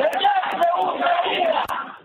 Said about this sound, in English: To the south, the small port city of Berdyansk was also attacked. The mayor says Russian troops took over the city but even then, people didn't give up. Protesters confronting the Russian troops and heckling them, shouting, Berdyansk is Ukraine.